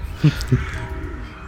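Two quick caws from a crow at about 0.25 and 0.55 seconds, somewhat distant and moderately loud, followed by a faint outdoor background with no voices.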